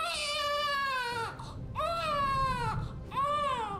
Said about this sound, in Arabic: وسط كوخ صغير يتعالى صوت الرضيع ابراهام إنه الطفل الثاني لتوماس ونانسي لينكولن